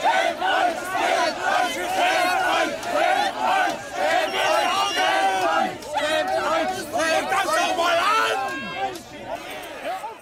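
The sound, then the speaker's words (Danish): A crowd of coronavirus-skeptic Querdenker demonstrators in Dresden, Germany, shouts "shame on you" angrily at police, recorded in March, many voices overlapping in loud, continuous chanting and yelling with rising and falling bursts throughout. “Det her det er fra en optagelse fra marts i Dresden, hvor såkaldte kvirdænker-demonstranter de råber skam jer af politiet.”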